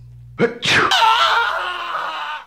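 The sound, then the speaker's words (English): A single loud sneeze: a sharp inhaled build-up followed by an explosive burst that trails off into a breathy, noisy release over a couple of seconds. “Yeah, he sneezed and threw out his back.”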